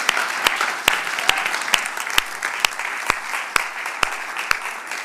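Steady audience applause for a speaker after her talk fills the whole stretch, a dense hiss of many hands clapping, with sharp individual claps punching through at a fairly regular rhythm. No one speaks over it.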